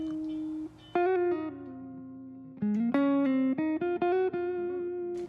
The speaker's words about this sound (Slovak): Aha, no, už počujete zvony, tak vrátime sa po krátkej reklamnej prestávke.